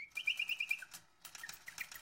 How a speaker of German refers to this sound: Der Baron lag im Fenster und beobachtete die Sperlinge, die gerade gegenüber in der Dachrinne saßen und sich unter beständigem Gepiep und Gehupf, dem dann ein abschüttelndes Flügelschlagen folgte, den Extravaganzen eines geordneten oder vielleicht